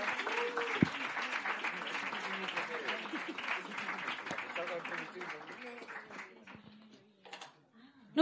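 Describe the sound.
An audience at a slam competition breaks into sustained applause, a dense wash of clapping with voices murmuring and calling underneath, gradually thinning and fading toward the end before a sharp final burst.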